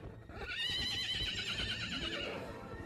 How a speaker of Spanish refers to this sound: De pronto, se escuchó un correr de caballo que relinchaba. Con la luz de la luna se veía la silueta de un caballo negro que sacaba lumbre de las piedras con sus cascos.